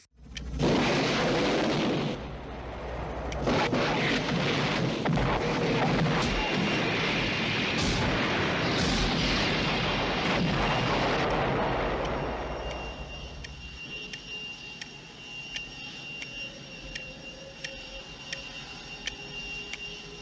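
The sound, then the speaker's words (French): Loud, dense bursts of gunfire and booming explosions from an armored helicopter emptying six magazines and all its missiles at a man with a pistol about 100 meters away roar continuously for about twelve seconds, then give way to a quieter stretch with lingering rumble and faint ringing tones. “il y a Hawk en face qui vide les chargeurs les six chargeurs qu'il a de, trucs, plus tous les missiles sur lui”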